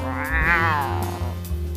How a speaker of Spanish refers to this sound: Toma tu leche, lindo gatito.